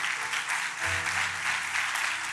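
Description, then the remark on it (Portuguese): A crowd in an auditorium applauds the Lord for a man's life, a dense wash of overlapping claps at an even volume throughout, with a low sustained tone entering partway through beneath the clapping. “Eu queria que você aplaudisse o Senhor pela vida dele.”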